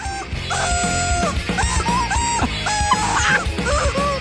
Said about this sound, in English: Wait, listen to how good this is. How good this is. It's a rubber chicken. It is a rubber chicken, but he had to practice. You understand the no- notes will help.